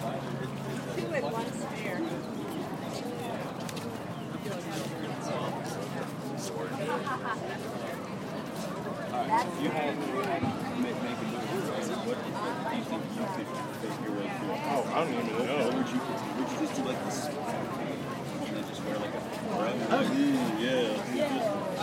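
A busy outdoor crowd mills about at an art fair in Madison, with overlapping chatter and a steady hubbub of voices, footsteps and movement spread throughout, no single voice standing out.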